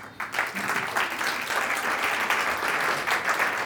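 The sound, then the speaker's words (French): A crowd at an evening event in Toulon applauds steadily to welcome the ACDAR, a dense wash of many hands clapping at once that swells quickly and holds at an even, fairly loud level without breaks. “je vous demande d'accueillir très fort et très chaleureusement l'ACDAR Kerfi”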